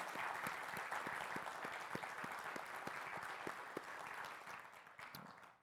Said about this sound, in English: Do we have veterans in the room today? Would you stand so that we could honor you, our veterans? Could we honor them with some applause?